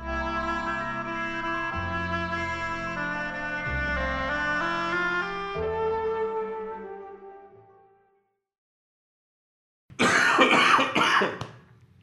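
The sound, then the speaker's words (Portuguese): A melodic music passage plays and fades out, then after a brief silence a person coughs loudly in a quick, rough burst lasting under two seconds. “Essa tosse precisa não sei se você que tava conseguindo rir.”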